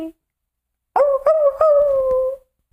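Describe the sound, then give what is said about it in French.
A person mimics a dog's whimper: a drawn-out, high, nasal whine lasting over a second, broken by a few short catches and gradually sliding lower, fairly loud. “Chien avec la queue entre les deux jambes.”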